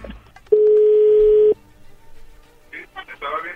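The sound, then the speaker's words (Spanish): A telephone line dialing out for a promotional sales call: one steady, mid-pitched electronic tone holds for about a second, then cuts off, followed by a pause and then people starting to talk. “Bueno, ya se está marcando, no haga ruido, por favor.”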